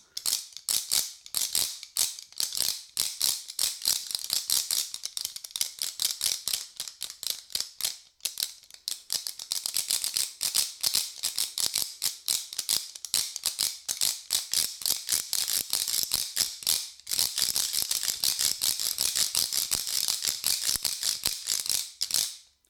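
A dense, ratchet-like rattle from a hand-played musical instrument whose two parts are moved alternately up and down by the hands, rapid dry clicks running steadily for over twenty seconds, with only two brief pauses.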